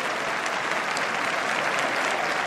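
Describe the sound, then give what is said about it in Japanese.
Steady applause from a large crowd of fans at Chukyo Racecourse, Japan, after the Takamatsunomiya Kinen race won by Naranfleg, a dense continuous patter of many hands clapping at an even loudness throughout, with no voices standing out above it. “3年連続重馬場で迎えた高松宮記念競争2番のナランフレグ丸田恭介に中京競馬場大きなファンの皆様から拍手が送られています”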